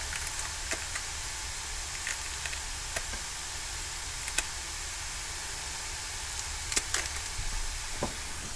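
Scissors snip through a jalapeño pepper in a few sharp, irregular cuts, heard quietly over a steady background hiss. No one speaks.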